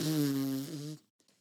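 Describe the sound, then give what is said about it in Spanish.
A single loud fart, a buzzy, rumbling blast lasting about a second with a slight wobble near the end, followed by a couple of faint sputters and no voices. “La presión dentro ya no se puede controlar. Es hora de despedorrearte.”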